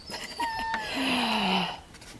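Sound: kitten meowing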